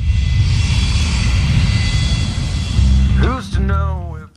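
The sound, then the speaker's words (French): An airplane engine roars loud and steady during takeoff, a high whine riding over deep rumble, and a voice briefly cuts in over the noise near the end. “On part en avion comme les influenceurs.”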